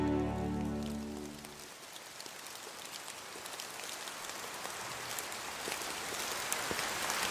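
Steady rain pours down with a dense, hissing patter and scattered sharper drops, following a brief low tonal hum at the start that fades out. No one speaks.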